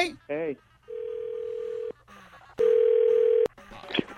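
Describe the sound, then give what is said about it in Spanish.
A telephone line rings through: two long, steady electronic tones about a second each with a short gap between them, preceded by a brief warbling chirp and followed by faint muffled voices. “Te voy a comunicar con ella, ¿eh?”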